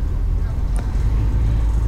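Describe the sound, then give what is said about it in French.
A steady, loud low rumble of a bus driving along a road, heard from inside, with a constant engine drone and one brief sharp click partway through. “Le paysage défile à la fenêtre du bus.”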